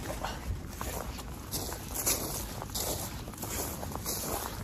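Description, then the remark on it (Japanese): Steady crunching footsteps on frozen grass lightly covered with snow, like treading on frost, a brittle crackling with each step in an irregular walking rhythm, fairly quiet with a soft hiss of background noise and no talking. “まあ、雪の音というよりもちょっとうっすら雪がかぶった草が凍ってるんですね凍った草を踏みしめる音”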